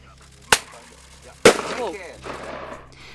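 Two sharp, loud bangs from a bird-scaring flare pistol used at an airport, about a second apart. The second is followed by a trailing hiss and crackle as the flare flies off, over a low steady hum.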